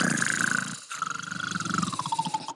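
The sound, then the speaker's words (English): A voice imitates the loud snoring of an aunt sleeping in her bed: two long, rasping, rattling snorts separated by a brief pause, the second one drawn out and fluttering before it cuts off. “and so my my aunt is in her bed sleeping, snoring like a motherfucker.”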